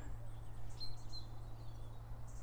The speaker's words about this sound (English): where I can hear great tits and chiff chaffs calling. It's a nice surprise.